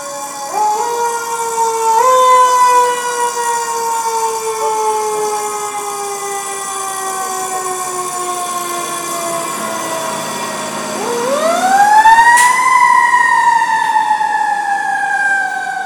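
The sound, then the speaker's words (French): Two fire trucks leaving fire station number 20 in Montreal, beside Chinatown, wail with sirens, their long rising and falling tones sliding in pitch as the vehicles pull away, with a second siren sweeping up loudly near the end over rumbling engine noise. “en à peine 15 secondes que deux camions viennent de sortir de la caserne numéro 20 de Montréal, qui est juste à côté de Chinatown.”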